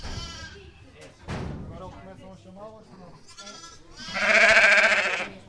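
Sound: sheep bleating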